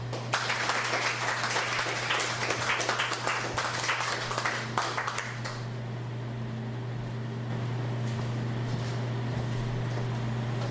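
A crowd applauds with dense, crackling clapping for about five seconds, then the clapping stops and a steady low electrical hum continues alone.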